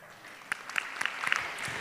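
An audience claps steadily, a dense patter of many hands with sharper individual claps standing out, moderately loud and sustained with no voices over it.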